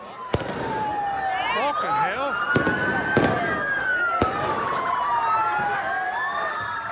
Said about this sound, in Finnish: Polttopulloja heitteleviä mellakoivia nuoria Belfastin ja muutaman muun kaupungin kaduilla. Tuleen sytytettyjä autoja – Poliisi yrittää hallita väkijoukkoja mellakkavarusteissa ja panssaroitujen autojen suojissa, mutta saa niskaansa kiviä,